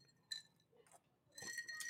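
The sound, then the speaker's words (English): A drinking glass clinks, a bright ringing tap followed by a longer cluster of glassy chimes and rattling, with a faint murmur in the background. “Like I'm going to drink out of this glass, but the glass itself is not food.”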